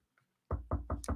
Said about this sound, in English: That's me knocking on wood.